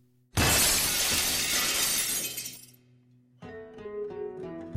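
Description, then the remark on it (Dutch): A sudden, loud crash of window glass shattering as an ashtray, a flowerpot about 40 centimetres across filled with gravel, is thrown through a window, a bright burst of breaking that lasts about two seconds before fading, followed by a quieter stretch of ringing, tonal sound. “Maar ik heb dus in al mijn woede heb ik die asbak door zijn raam heen gegooid.”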